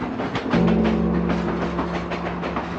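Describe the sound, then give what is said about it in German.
The overland train to Mandrak runs steadily along the rails through a small valley in the Carpathians: a continuous low rumble with a droning hum and a repeating rhythmic clatter of wheels over track joints, with no voices. “Durch ein kleines Tal schlängelt sich, zuweilen schrill aufkreischend, hin und wieder in tiefen Schluchten verschwindend, der Überlandzug nach Mandrak.”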